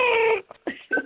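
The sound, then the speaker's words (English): A person lets out a short, wolf-like howl, a sustained tone that dips slightly before breaking off into a few brief, uneven vocal yelps, fairly loud. “I hear the wolves calling.”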